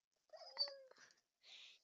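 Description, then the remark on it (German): Small dogs whimper in a video game, a short, high, whiny cry with a couple of quick yelps, followed by a brief hissing burst; fairly quiet, with no talking. “Diese kleinen Hunde.”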